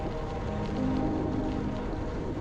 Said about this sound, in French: alors que je reprends ma route, je vous avoue, la descente est beaucoup plus sympa. J'en profite pour reprendre mon souffle alors que le vent me fouette le visage.